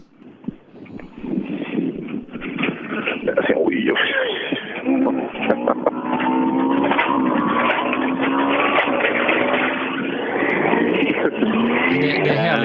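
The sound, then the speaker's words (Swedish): A rally car engine revs hard and climbs through the gears, its whining pitch repeatedly rising. It's loud, running continuously with rough gravelly noise underneath. “att vi får höra rallyåkande i alla fall.”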